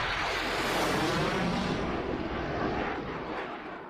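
A loud fighter jet roars at low altitude over the city of Conakry, around 9 in the morning, a dense, steady rushing roar that holds strong for several seconds before easing off slightly toward the end, with no voices.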